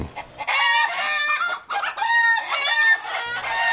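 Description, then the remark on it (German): Chickens cluck busily and a rooster crows amid the flock, a dense, continuous barnyard chorus with no one talking. “Wir nutzen nutzen die Zeit nämlich jetzt und düsen in den Landkreis Celle und besuchen einen Experten, der sich mit zweibeinigen Tieren beschäftigt, die diese Geräusche machen.”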